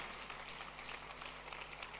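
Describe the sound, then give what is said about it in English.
Steady applause from a crowd on their feet applauding God, a dense wash of clapping that holds at an even, fairly soft level for a couple of seconds with no voices standing out. “Applaud God.”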